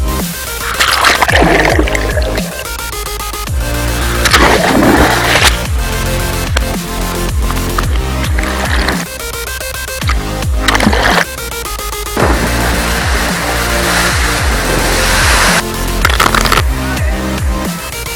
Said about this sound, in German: Vorher kühle mich aber im Wasser bei diesem wundervollen Wetter ein wenig ab. Kommt mit!